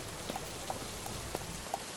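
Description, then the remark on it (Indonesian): Rain falls in a steady, soft hiss at the city of Pakuan in Sunda, with a few distinct drips tapping through it at irregular moments. It sounds fairly quiet and even throughout, with no voices. “Hujan menyambut kedatangan mereka.”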